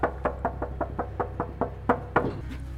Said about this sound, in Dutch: Timmergeluiden. er zijn weinig timmermannen om het geluid nu te laten horen, dus maken we het zelf maar.